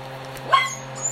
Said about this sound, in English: Sorry, we have a puppy and a dog, so if you hear them in the background barking or whining, we apologize. It's a little chaotic. The puppy and the dog want to play.